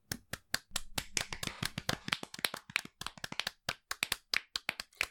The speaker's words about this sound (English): Most learned, may I present our guests of honor? There is spontaneous, almost practice applause from the gathered mass of church members.